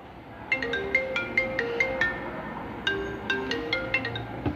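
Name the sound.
mobile phone call ringing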